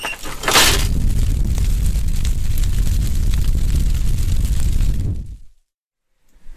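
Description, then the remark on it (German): A steam locomotive's firebox fire, just stoked with heavily shovelled coal to make the engine ready to run, roars loudly and steadily, a deep rumbling whoosh with crackling texture. A sharp bright burst comes early on. The roar cuts off abruptly near the end, leaving silence. “Und äh, deshalb äh, hat er dann kräftig Kohle geschaufelt und äh, das Feuer klang dann auch gleich mal deutlich imposanter, als ich das Mikrofon das nächste Mal reingehalten habe.”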